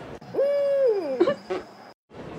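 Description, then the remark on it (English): A drawn-out, owl-like hoot slides downward in pitch, then breaks into two short, abrupt hiccuping bursts, fairly loud, over a faint steady high whine. “here is a personal favorite of mine called Endangered Owl Hiccup Farts”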